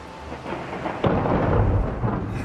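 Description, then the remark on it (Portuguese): A sudden crack of thunder from a thunderstorm in a forest breaks over a steady hiss of rain, then rolls into a loud, deep rumble that carries on to the end. “As tempestades na floresta, uau! O mistério a desafiava. Por que os raios vêm antes dos trovões?”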